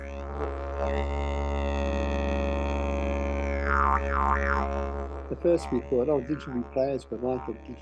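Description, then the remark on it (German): A deep, steady didgeridoo drone, played with the tongue close to the palate, holds for about five seconds with a bright, ee-like vowel colour and shifting overtones, then breaks into shorter warbling, voice-like pulses. “Liegt die Zunge dicht am Gaumen, werden bestimmte Frequenzen unterdrückt, andere verstärkt, und das Instrument produziert einen Klang, der in etwa wie ein I klingt.”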